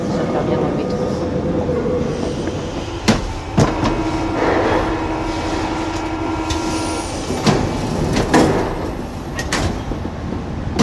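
Inside a moving Paris metro train heading toward La Défense: a steady low rumble and hum of wheels on track, with sharp metallic clicks and clanks from rail joints recurring every few seconds, fairly loud.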